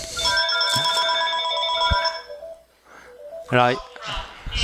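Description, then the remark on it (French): A telephone rings with a bright, steady electronic tone that sustains for a couple of seconds, fairly loud, then stops as a person begins speaking. “Ça c'est bah ça c'est notre téléphone en fait.”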